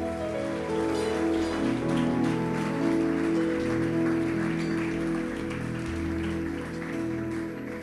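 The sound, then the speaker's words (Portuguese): An audience applauding the Lord during worship: dense, steady clapping that holds for several seconds, mixed with sustained keyboard or organ chords playing underneath throughout. “Pode aplaudir o Senhor.”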